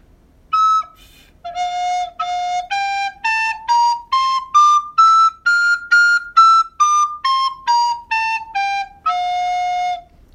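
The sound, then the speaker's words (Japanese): A recorder plays an F major scale, stepping up note by note to a high peak and then back down, each tone clean and breathy with short gaps between, ending on a held low note. “キーが F なので、一回ちょっと F のメジャースケールを吹いてみたいと思います。”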